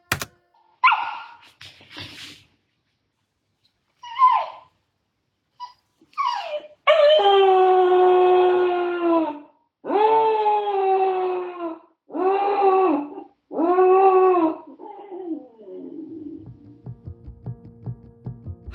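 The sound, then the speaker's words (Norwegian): A small puppy left alone at home gives a few scattered short whimpers, then breaks into several long, wavering howls in quick succession, loud, trailing off into a fading whine. “Der hørte vi en liten valp som er forlatt aleine hjemme.”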